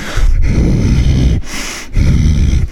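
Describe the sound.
A voice imitates loud snoring or heavy breathing in three rough snorting breaths with brief pauses between them.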